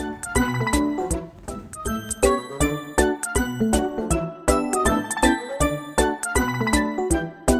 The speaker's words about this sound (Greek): και κατεβαίνει με σπιρτάδα και αγωνία τον λόφο προς το χωριό, χτυπώντας το κουδουνάκι που κρατά στο χέρι του, φωνάζοντας με όλη του τη δύναμη, ειδοποιεί τους χωριανούς ότι έρχονται οι πειρατές και να κρυφτούν όλοι.